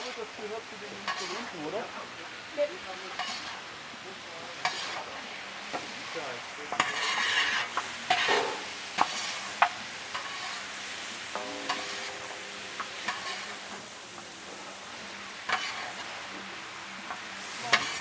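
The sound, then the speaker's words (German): Rice sizzling and crackling in a hot pan, stirred with repeated scraping strokes and occasional sharp clicks of a utensil against the pan, steady throughout. “Es gibt Reis. Reis, Reis, Baby. Genau. Oh, Alexa. Ah, Röstaromen.”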